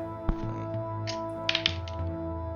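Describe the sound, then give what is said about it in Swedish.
A twenty-sided die clatters across a tabletop: a sharp first knock, a brief rattle, then a quick cluster of small clicks as it settles, landing on 20. It's fairly quiet over a steady background hum, with no one speaking. “Kasta en tärning.”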